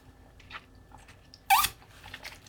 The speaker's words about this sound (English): I'm gonna take a sip.